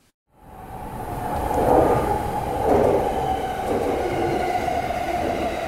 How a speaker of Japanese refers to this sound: この電車は山手線外回り品川渋谷方面行きです次は有楽町有楽町お出口は左側です地下鉄日比谷線地下鉄有楽町線はお乗り換えです